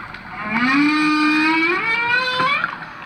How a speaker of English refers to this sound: A hydrophone the crew dropped into the water records the sounds of a lone male humpback trying to sweet talk a female.